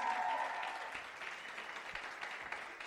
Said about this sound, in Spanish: ¿por qué no le damos un fuerte aplauso?